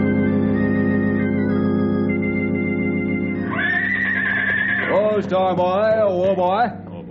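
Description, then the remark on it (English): A saddled horse named Dusty, a mount about to be ridden, gives a loud, shrill whinny that rises sharply and then breaks into a quavering, wobbling neigh lasting a few seconds, over a steady, sustained droning tone. “There's a fine mount you've given me.”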